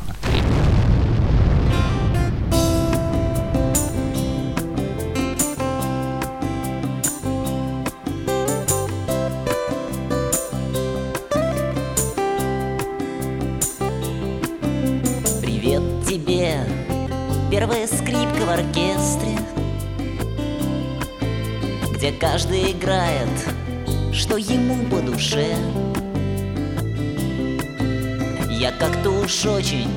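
A full acoustic rock band plays a song from the band's first, acoustic album, loud and steady throughout, with strummed guitar chords, bass and a regular drum beat driving an even mid-tempo rhythm.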